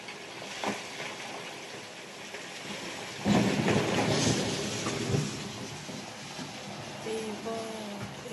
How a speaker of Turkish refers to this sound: Şimdi bu Doğu Karadeniz'deki kuvvetli sağanak yağışın yaşattığına bir bakalım. Rize'ye bir geçmiş olsun diyelim.